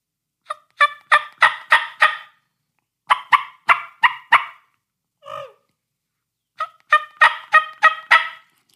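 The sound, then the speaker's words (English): A turkey call sequence of clucks, yelps and purrs, fairly loud: three quick runs of raspy, stepped yelps, about five notes each, with a single softer, rolling purr-like note between the second and third runs. No talking. “you're gonna have some clucks, um, some yelps, and some purrs.”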